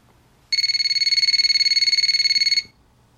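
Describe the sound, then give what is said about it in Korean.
A telephone rings loudly at four in the morning for about two seconds, a rapid trilling electronic bell with bright, steady harmonic tones pulsing evenly, over a quiet low background hum. “새벽 4시 요란한 전화벨이 울렸습니다.”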